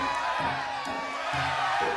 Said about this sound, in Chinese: 哇！村民们都欢呼了起来。